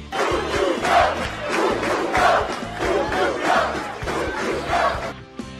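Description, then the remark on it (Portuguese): A large crowd welcoming Portugal's national team, the Lobos, on their arrival in Portugal chants and sings loudly, including the national anthem, in a steady, rhythmic pattern, with swells roughly every second and a dense roar of many voices throughout, fading slightly at the end. “O som que ouviram logo no início deste episódio era dessa chegada, apenas uma parte, cantou-se de tudo, incluindo o hino nacional”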